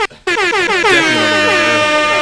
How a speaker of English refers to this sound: Oh no, but I'll give myself an air horn.